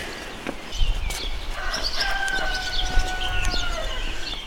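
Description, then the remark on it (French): A rooster crows once at 6:30 in the morning in a long, drawn-out call over a steady low outdoor rumble with faint bird chirps; no one speaks. “Et le coq chante.”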